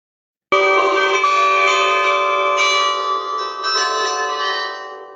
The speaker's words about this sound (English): But it does have a cool clock tower in the marvellous main square there, which plays a delightfully discordant tune.